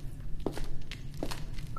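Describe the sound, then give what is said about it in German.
Two slow, distinct footsteps on a hard stone floor, spaced well apart, approaching a locked door of a cell with bare stone walls, heard over a steady low background rumble with no one speaking. “Und dann höre ich Schritte näher kommen.”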